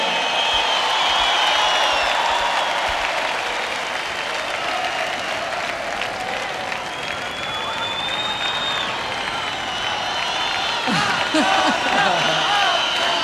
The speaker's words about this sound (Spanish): El público lo recibió y lo despide con estos aplausos y esta ovación.